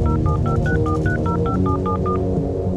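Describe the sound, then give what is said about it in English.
A rapid series of about eleven short electronic keypad beeps, evenly paced as a phone number is dialed to call the military press office, over a steady low background hum. “Since I figure Bob will want me to write the snap, I go downstairs, call the military press office,”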